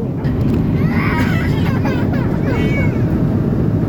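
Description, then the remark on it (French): Young children cry and wail in short, rising bursts over a loud, steady airplane cabin roar on a flight leaving the United States; the cries are partly buried in the engine drone. “On était entouré de bambins. Arrêtez d'hurler sur tout le voyage.”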